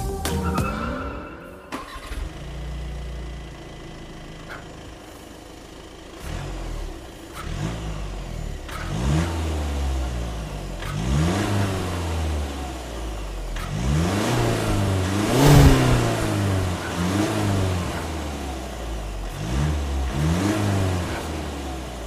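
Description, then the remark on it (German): A Skoda Superb diesel car engine with all-wheel drive starts up, then revs repeatedly in rising and falling sweeps, loud, with a rough idle between pulls and no voices. “Diesel, ja schon wieder Diesel und, was wir ja auch schon beim letzten Mal festgestellt haben, auch wieder Allrad.”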